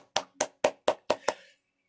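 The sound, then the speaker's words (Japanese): A single person claps their hands six times in a steady, fairly quick rhythm, applauding themselves for landing a new job; each clap is sharp, with a brief ring trailing off after the last one. “まあ、見事、えー、転職が決まりまして、自分で自分に拍手ですが、”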